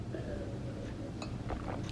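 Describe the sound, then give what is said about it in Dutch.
A quick sip of water: a few soft, brief clicks and gulps, with a faint glassy clink, over a steady low hum. No one speaks. “En ik pak even snel een slokje water voordat ik in de eerste vraag duik van Astrid.”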